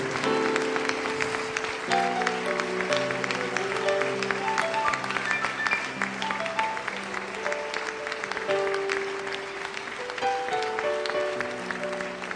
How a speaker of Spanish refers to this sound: Dele ese aplauso bien fuerte para Jesús.